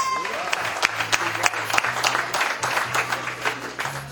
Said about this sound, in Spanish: Demos la bienvenida, demos un fuerte aplauso a FIRA, Banco de México.